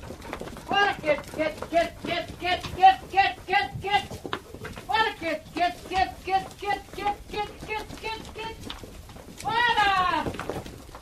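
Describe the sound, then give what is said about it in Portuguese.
A herd of goats bleats constantly, many overlapping calls in quick succession, with a soft clatter of hooves underneath as they run through narrow village streets toward the bottom of the village, ending in one long, loud wavering bleat. “Em poucos minutos, as ruas estreitas enchem-se de cabras, saem de todo o lado, correm, atrapalham-se, atropelam-se e formam rapidamente uma enorme enxurrada em direção ao fundo da aldeia.”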